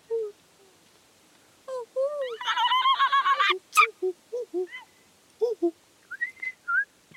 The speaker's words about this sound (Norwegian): De tre fuglene hilser på hverandre.